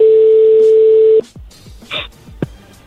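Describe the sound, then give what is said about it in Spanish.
A phone number being dialed again after the other party hung up: a steady, loud electronic tone holds for just over a second, then cuts off and gives way to a scattering of short beeps and clicks. “colgó, márcale de nuevo.”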